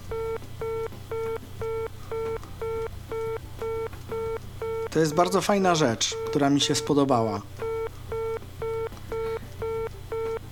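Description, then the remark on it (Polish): A free-line telephone signal tone emitted by a telephone gateway pulses steadily from a handset, short evenly spaced beeps repeating throughout, with a person briefly speaking over it in the middle. “I teraz musimy poczekać, aż ten sygnał się skończy.”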